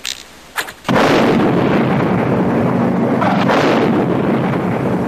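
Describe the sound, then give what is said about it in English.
A spaceship hit by DVDs fired from a slingshot crumbles and blows up in a massive explosion: a sudden loud blast after a couple of short pops, then a dense, roaring wall of noise that barely fades over several seconds. “Jennifer and Roy pull the slingshot back and fire all the DVDs at the spaceship, which soon crumbles to thousands of pieces and blows up in a massive explosion.”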